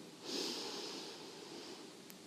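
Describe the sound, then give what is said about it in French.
A slow, steady inhale through the nose during a yoga complete-breath exercise, a soft airy hiss that swells early and then gradually fades over about two seconds, quiet, with no talking. “Donc c'est-à-dire on commence à inspirer tout doucement par le nez”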